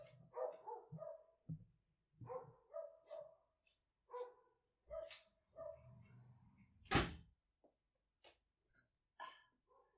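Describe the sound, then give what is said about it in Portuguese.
Dogs bark repeatedly outside the window, a series of sharp yaps and woofs in irregular bursts, with a brief loud knock or clatter partway through. “mas eu, eu tenho cães aqui a ladrar.”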